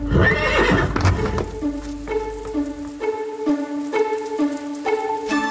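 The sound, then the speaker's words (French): A horse, Pécadius, walks at an even pace into a dark forest, its hooves clip-clopping in a steady rhythm, clear, after a brief noisy burst at the start that sounds like a whinny. No one speaks. “Sans escorte, sans explication, il s'éloigna du château et prit la direction de la sombre forêt. Il s'y enfonça au pas.”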